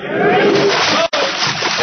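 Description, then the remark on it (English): A body smacks hard into water, throwing up a loud, broad splash, followed by churning, rushing water that breaks off briefly and then surges on. “water pretty hard, didn't we?”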